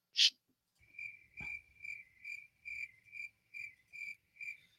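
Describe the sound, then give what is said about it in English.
Crickets chirp in a steady, evenly spaced rhythm of about ten pulses, moderately loud, after a brief sharp click at the start. No one speaks. “Uh, the crickets don't even understand.”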